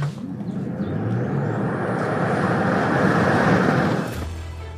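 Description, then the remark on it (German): A Tesla Model Y Performance electric car accelerating hard from a standstill: about four seconds of loud, broad tyre and wind roar with a faint high whine rising in pitch, then the roar drops away suddenly. “Performance-Modelle von Tesla sind natürlich bekannt für ihren Start aus dem Stand.”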